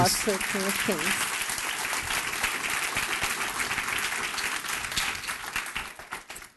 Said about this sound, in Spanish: Dele ese fuerte aplauso al Rey de